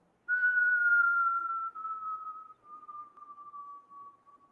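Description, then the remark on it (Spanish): A single long, steady whistle that glides slowly downward in pitch, starting strong and then wavering and softening as it trails on for about four seconds, with no talking. “Ron profirió un silbido bajo y prolongado”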